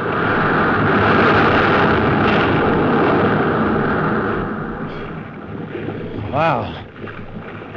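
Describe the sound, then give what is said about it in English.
A huge wave crashes against a ship's port bow in a loud, sustained roaring rush that slowly subsides over several seconds, followed by a brief voice-like cry over lingering water noise. “Hey, look at the size of that wave. What? Grid, you huzzifat. We're going to take it on the port bow.”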